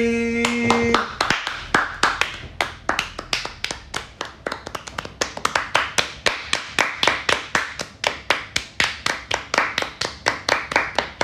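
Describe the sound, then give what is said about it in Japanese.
A brief tonal note opens, then sustained applause follows: sharp, evenly spaced claps in a steady brisk rhythm that carries on at an even loudness for about ten seconds, with no talking. “鳴りやまないですね すごいな何のためにキュッと始めたのか 無駄に拍手の時間がやけ長いという展開でしたけど盛り上がってますね”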